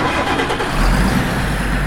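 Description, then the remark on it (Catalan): A winter road-maintenance crew's vehicle engine starts on a dark, windy, snowy night, its low rumble swelling after a brief moment into a loud, steady idle. No one speaks. “I malgrat les recomanacions de mobilitat són de no agafar el vehicle, hi ha un equip de conductors del país que engega el motor”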